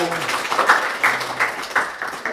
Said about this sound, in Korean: 다시 한번 뜨거운 박수 부탁드리겠습니다.